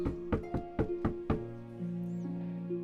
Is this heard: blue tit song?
no